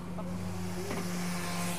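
A power sander runs steadily close by, a continuous motor hum layered with harsh, even grinding noise that holds at the same loud level throughout, with no talking.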